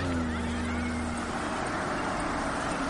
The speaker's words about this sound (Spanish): Otra camioneta de Vámonos Pest se acerca.